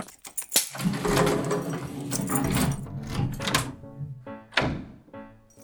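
An elevator running between floors on the way up to the 42nd floor: a few sharp mechanical clunks, then a steady whirring motor hum for several seconds, ending in more thuds as it stops. No voices.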